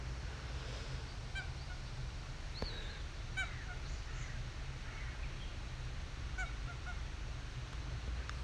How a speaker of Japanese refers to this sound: 目の前のカモが水面を羽ばたく音ガーガーと鳴く音でこういう感じですね